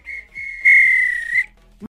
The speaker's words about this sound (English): If this were a real bit of extra time, this is when the ref blew the whistle because it's finished.